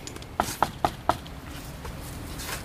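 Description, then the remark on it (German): Four sharp knocks on a wooden gate in a large board fence surrounding a site, evenly spaced in a quick rhythm, hollow and fairly loud, followed by quiet background noise with no talking. “Ich klopfe da einfach mal.”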